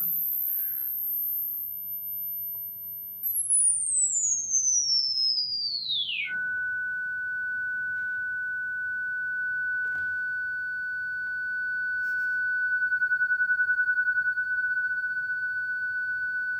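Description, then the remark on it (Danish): A lone electronic sine tone starts very high, glides downward, then settles into a steady, slightly wavering pitch that holds to the end, with no voices present. “Her kan man næsten høre det, at øh, den hopper op og ned i, i tonehøjden.”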